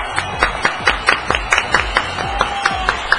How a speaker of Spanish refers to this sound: Con nosotros, fuerte los aplausos para nuestro coach de prosperidad